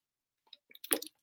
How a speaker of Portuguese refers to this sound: Parei que eu vou tomar meu golinho de água, que eu tô aqui no gogó bravo hoje, hein, gente?